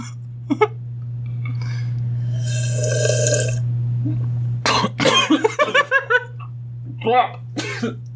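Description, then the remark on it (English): A person takes a long, noisy slurp of coffee and chokes on it, followed by a burst of sputtering coughs in rapid succession, then a few more spluttering coughs, all over a steady low electrical hum. “I tried to slurp so that I could do a You May Be Wondering Why I'm Slurping, which is only funny to me. And then I just choked.”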